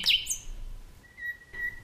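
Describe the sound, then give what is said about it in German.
A common nightingale sings alone outdoors: a bright, sweeping whistled phrase followed by two sustained, pure piping notes, clear, with no voices. “In diesen leuchtenden Juninächten erklingt auch der Gesang der Nachtigallen.”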